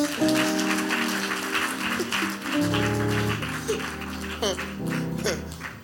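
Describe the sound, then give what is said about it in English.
An audience claps its hands for the preacher during a sermon in a steady, dense wash of applause lasting several seconds, with raised voices and sustained tones ringing over the crowd. “Clap for us for our father.”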